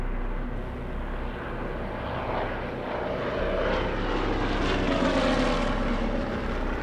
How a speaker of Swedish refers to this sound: med skrikande motorer lyfter i tät följd ytterligare 182 flygplan som formerar sig och sätter kurs mot anfallsmålet som nu är mindre än två timmar bort.